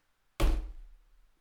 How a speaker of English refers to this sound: Do you hear this? That's a cup. It's hard and it's concrete.